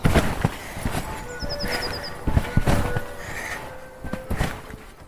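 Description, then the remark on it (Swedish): Two children jumping on a trampoline outdoors in a garden: repeated springy thumps in an uneven rhythm, with a brief burst of birdsong chirping in the background. “så här låter det när mina barn Siri och Folke hoppar studsmatta”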